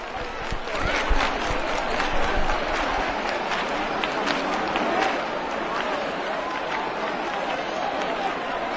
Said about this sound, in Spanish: Escuchamos los aplausos.